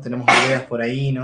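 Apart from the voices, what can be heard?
sneeze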